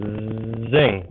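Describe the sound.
A voice mimics a delivery drone zooming past: a steady buzzy hum that swells and bends upward in pitch near the end, then fades as if passing by, about a second long.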